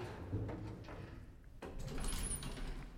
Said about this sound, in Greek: Μισάνοιξε την πόρτα.